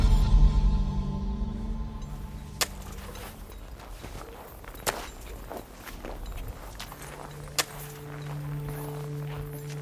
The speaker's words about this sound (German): Er macht immer ein paar Schritte und stützt sich dann auf sein Eispickel, um kurz auszuruhen. Zehn Schritte ausruhen. Wieder zehn Schritte, wieder ausruhen.